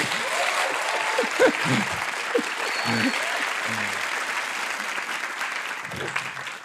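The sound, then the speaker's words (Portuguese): Sustained audience applause welcoming four people who have just arrived, a dense steady patter of many hands clapping at a fairly even loudness for several seconds, with faint murmurs of voices mixed in. “Portanto, uma grande salva de palmas para estas quatro topeirinhas que chegaram.”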